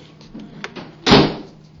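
A door slams shut once with a loud, sharp bang that rings out briefly, preceded by a few faint clicks and rattles of the door moving. No one speaks.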